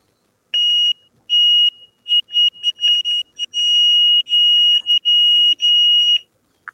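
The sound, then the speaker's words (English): A piercing 146-decibel electronic alarm device blares, a shrill high-pitched tone sounding in rapid bursts and stretches for several seconds, very loud and harsh, with no voices. “As you can see, as you can hear, that that's 146 decibels.”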